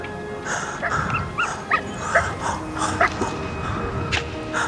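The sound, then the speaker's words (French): Young arctic wolves on the tundra yip and whimper in a scattered run of short, high-pitched calls, moderately loud, over a steady rustling background with no clear talking, as the curious young wolves tug at a lying man's trousers with their mouths. “Les plus jeunes loups, curieux, viennent tirer son pantalon avec leur gueule.”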